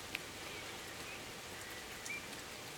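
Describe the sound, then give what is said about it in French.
Steady rain pours outside during a storm, heard through an open window, a soft continuous hiss with scattered droplet taps; a faint bird chirp briefly sounds. “Je me suis juste dit, euh, mais attends, si j'ouvrais la fenêtre et juste que, bah, que je te faisais écouter la pluie et puis l'orage.”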